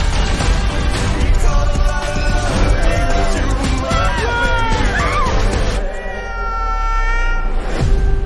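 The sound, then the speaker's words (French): A cat meows loudly and insistently, with several drawn-out, wavering cries over a busy background, ending in a long sustained yowl. “Je déteste ce chat.”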